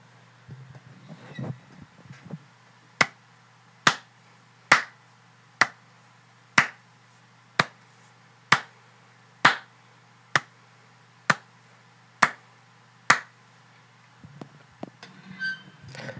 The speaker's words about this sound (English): I think the funniest thing about that bit I just did is that, you know, I clapped to like sync the video and audio together beginning of the show, and I realized no, I, I didn't have to do that.